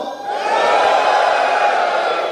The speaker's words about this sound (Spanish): Damas y caballeros, les pido su total cooperación, por favor. Quisiera, quisiera pedir un grito a los hombres, por favor.